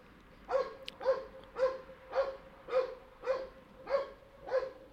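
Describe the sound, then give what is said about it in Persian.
A dog barks over and over in a steady, even rhythm, about eight sharp barks in a row, with no voices present. “سگه چقدر باحال صداش میاد”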